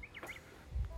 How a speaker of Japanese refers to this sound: ちょっとこう鳥の声とか聞こえますかね、えー、森の手前の入り口ぐらいに来てなんだろうなちょっとこう空気が澄んであの冷たい空気っていうんですかねその平地とは違ってこの新緑の中ってちょっとこう空気が涼しい感じというか、はい、そこに今来てあの深呼吸しようかなと思って来ました。